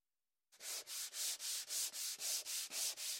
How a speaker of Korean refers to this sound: 나무의 거친 표면을 사포로 매끈하게 다듬었습니다.